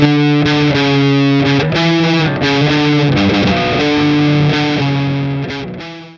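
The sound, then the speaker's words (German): A heavily distorted electric guitar in B-standard (baritone) tuning plays loud, low-tuned chords and riffs with a thick, saturated tone, changing notes every fraction of a second before ringing out at the end, with no voices. “Das letzte, was ihr gerade gehört habt, war B-Standard oder auch Bariton-Tuning.”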